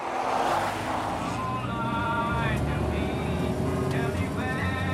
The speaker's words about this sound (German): Nur unser Wagen, mit dem wir unterwegs sind durch eine idyllische Landschaft.